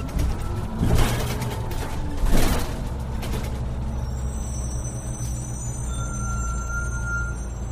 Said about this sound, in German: Schon früh am Morgen kommt die Müllabfuhr.